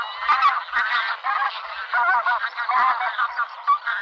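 A flock of bean geese flying in V-formation over a city honks continuously, many nasal calls overlapping in a busy, fairly loud chorus that never pauses, with no talking.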